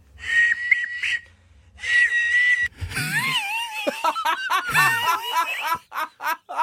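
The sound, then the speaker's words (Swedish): A man makes two sustained, steady high whistling tones in his throat, each lasting about a second with a short pause between, followed by an outburst of giggly laughter. “Ja, men, alltså det han gör då är alltså att vissla med halsen.”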